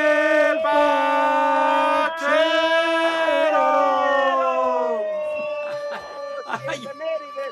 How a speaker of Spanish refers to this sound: Ay, ay, hasta se interrumpió la sirena de este güey. ya venían por mí la ambulancia.